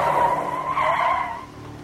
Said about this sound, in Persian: گاز بده یالا نمیتونم تندتر برم برو چاره چوله است جاده خاکی